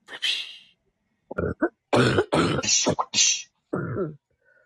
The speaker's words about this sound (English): Stop coughing. I can't, I am trying to.